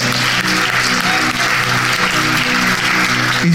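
An audience applauds the Lord and its first missionary of the 21st century in a steady, loud wash of clapping that fills the whole clip, with a low sustained tone and faint murmurs underneath.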